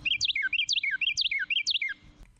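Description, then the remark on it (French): A bird sings a quick, repeated phrase of bright, swooping whistled notes, four rhythmic bursts in a row, clear, with a faint low hum underneath and no talking; recorded for identification with the BirdNet app. “Have you ever heard a bird singing and wondered what kind of bird is it?”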